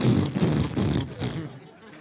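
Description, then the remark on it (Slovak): A man's voice mimics a droning, out-of-tune cheap bass guitar from a church with a low, buzzy, growling hum that wavers for about two seconds before trailing off. “Taká, ktorá the vydáva cheap one, takú nejaký strašný zvuk a bola, bass, bola to hrozná the bass gitara. That is never tuned, v nebola nikdy naladená. The one that sounds like...”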